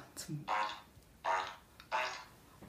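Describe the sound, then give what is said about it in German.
A toy fart piano played at a kitchen table gives three separate blatting, buzzy fart noises, each lasting about half a second, with short gaps between them. The sounds are loud. “Geil. Das Furzpiano.”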